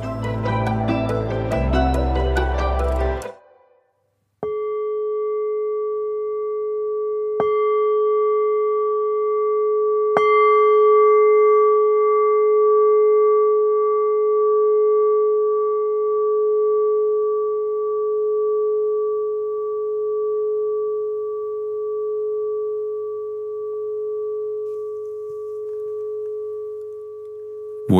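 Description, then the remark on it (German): A meditation gong is struck three times a few seconds apart, its steady, pure ringing tone sustaining and slowly fading for over twenty seconds, following a brief loud burst of sound. No one speaks. “Alles weitere, was Sie machen müssen, erklärt Ihnen jetzt der Christian Fein nach dem Gong.”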